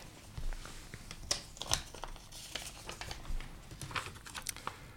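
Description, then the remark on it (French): Quiet paper rustling and crinkling with a few sharp crackles, as a slip of paper with a question written on it is chosen from three and unfolded over several seconds, with no talking. “vous avez devant vous trois papiers avec trois questions. Euh, je vous laisse choisir un papier et nous dire le thème qui est écrit.”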